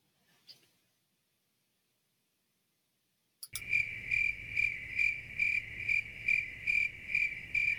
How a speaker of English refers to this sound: I played the crickets because I wanted a moment to think and my husband says I pause too much, but when I pause, I'm thinking.